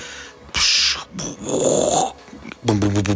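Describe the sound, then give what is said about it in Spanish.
A voice imitates the sounds of an earthquake tremor at night: first a wave crashing with a sharp breathy whoosh, then a longer, rasping creak. The vocal noises are fairly loud, with a brief voiced sound at the end. “otra vez empieza a temblar mismo crujido, pero ahora como ya era de noche y está todo callado, se escuchó primero la ola, o sea, eh, cuando cae la ola, luego el crujido, hazte cuenta que fue.”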